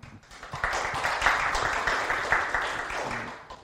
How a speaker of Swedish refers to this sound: Ni får en applåd.